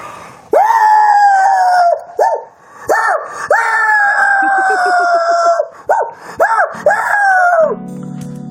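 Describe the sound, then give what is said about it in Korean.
On the radio show Mr. Radio, a voice imitates a dog howling from a distance: a series of loud, long, wavering high-pitched howls, a few shorter yelps among them, each sliding up at the start and drooping at the end. “저, 어, 먼발치에서 우는 개소리 정도는 할 수 있죠.”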